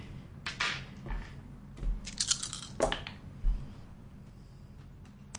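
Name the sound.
dice being rolled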